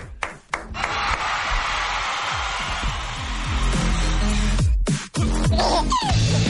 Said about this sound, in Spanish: Un aplauso, cómo no.